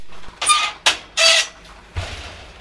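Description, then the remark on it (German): A researcher opens the door to a laboratory: a few short, bright creaking squeaks in quick succession, followed by a soft, low thump as it settles, with no one talking. “Die Forscherin öffnet die Tür zum Labor.”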